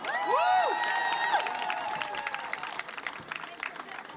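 A crowd at a CSD (Pride) event applauds and cheers for a German electropop band, with clapping spread across the whole clip and whoops and whistles rising at the start, then settling into steady clapping and scattered shouts.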